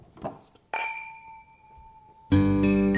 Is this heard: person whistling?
no